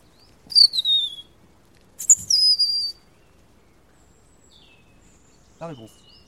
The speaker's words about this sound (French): je suis en train de communiquer avec un rouge-gorge en même temps que j'entends